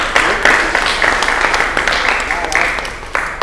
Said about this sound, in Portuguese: Show de bola. Bom demais, gente. Aplausos aí, gente.